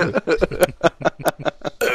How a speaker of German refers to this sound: Hust.